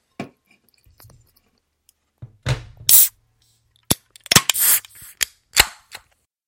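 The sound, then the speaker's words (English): A can of Fria Cerveza, a cerveza-style lager brewed with lime zest by Amsterdam Brewery, being cracked open: a sharp pop with a short fizzing hiss, followed by several crisp metallic clicks and taps, with no one talking. “It hasn't been very sunny lately here, but if it is, I re- recommend you guys crack open a Fria Cerveza from Amsterdam Brewery.”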